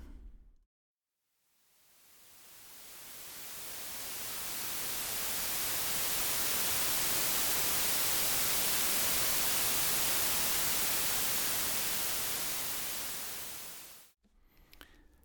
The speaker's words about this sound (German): so weißes Rauschen, das zehn Stunden geht. Und ähm, ich glaube allerdings nicht, dass ich mir das zehn Stunden antun möchte.